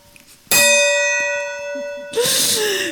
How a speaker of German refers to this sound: Willst du, willst du mal einen Gong schlagen? Soll ich das Göngle schlagen? Schlag doch mal ins Göngle.